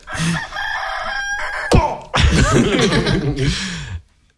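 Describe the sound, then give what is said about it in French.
Someone imitates a rooster crowing, a loud cock-a-doodle-doo delivered in two drawn-out wavering phrases with a brief break between them, no other sounds around it. “Non, le chant du coq, moi, à chaque fois que j'entends un coq chanter et qu'il me réveille, je me dis que c'est quand même vachement bon le coq au vin.”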